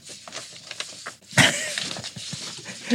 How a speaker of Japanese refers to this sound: これ紙でペラペラね。これ紙の音も入ってるよね、きっとね。きっと入ってるよね。